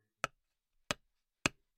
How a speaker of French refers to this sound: Entre trois coups de marteau pour accrocher un cadre et des travaux plus lourds, il y a quand même une différence.